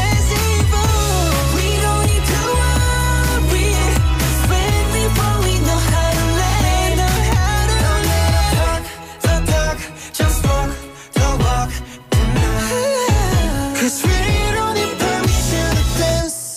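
An upbeat K-pop dance song plays loudly with a steady bass-heavy beat and bright layered instrumentation, its full sound briefly dropping out in short breaks before returning.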